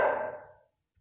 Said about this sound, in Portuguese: Conseguiram ouvir o meu cachorro Bento, né? Ele já acordou, já faz tempo.